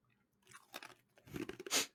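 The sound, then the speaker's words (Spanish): Hard, crackling crunches of ice cubes being chewed, a few irregular bites building to a loud final crunch, with no talking. “Estoy masticando hielo.”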